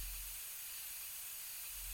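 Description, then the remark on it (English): A steady, breathy hiss of steam escaping from a car radiator damaged in a crash, continuous, with no voices and a faint low rumble underneath. “The hood of the car is a tinted ruin, the radiator sending up steam like the stuttering gasps of a dying person.”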